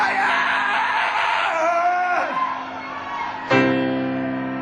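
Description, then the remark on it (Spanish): A singer screams loudly and continuously in a 1999 live recording, the strained voice sliding and bending in pitch before breaking into a sudden, sharper burst near the end. “conocido por unos performances de piano y gritos, escuchemos esto.”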